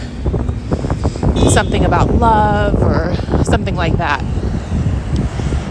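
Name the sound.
city street traffic noise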